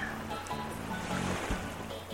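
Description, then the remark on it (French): Ocean waves wash steadily onto a beach, a continuous soft roar of surf with no distinct break, over a low, sustained tonal hum underneath. “Ta respiration se cale sur le mouvement des vagues.”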